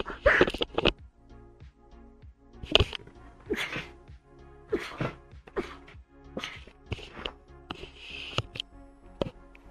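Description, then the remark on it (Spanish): A string of sharp, explosive, loud sneezes from a woman with an allergy, with short gasping breaths and sniffles between them, spread unevenly over several seconds. “Vale, tanto que hice eso me dieron ganas de estornudar.”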